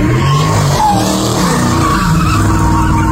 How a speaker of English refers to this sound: Audio obtained by Blackwood News shows several cars doing donuts and driving recklessly in front of a crowd of spectators.